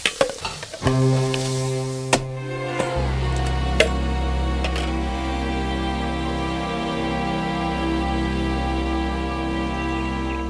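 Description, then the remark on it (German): Sunny-side-up fried eggs, just finished for breakfast, sizzle in a frying pan with a steady, crackling hiss that runs the whole time, broken by a few sharp clinks of a utensil near the start, with a low hum underneath. “Die Spiegeleier sind fertig.”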